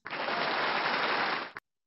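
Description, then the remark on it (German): A short burst of audience applause during the announcement of nominees for best national group, a dense, steady wash of many hands clapping that holds an even level for about a second and a half before cutting off abruptly, with no voices. “der Applaus wird auch immer schwächer.”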